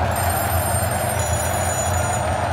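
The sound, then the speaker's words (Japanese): Several telephones at the press seats of a baseball stadium ring together in an overlapping, unbroken jangle after the game is tied 5-5, steady and fairly loud over a dense background hum, with no one speaking. “再び記者席の電話が一斉に鳴り響いたえらいこっちゃ優勝してしまうから記者席はたちまち戦場と化した”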